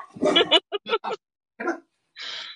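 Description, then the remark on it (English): Several short, high-pitched yips and squeals from puppies at play in a garage, coming in quick irregular bursts, with a brief breathy squeak at the end. “we've got puppies that are trying to have playtime now”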